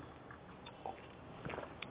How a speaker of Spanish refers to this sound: Bueno, me voy a dar el segundo sorbito del día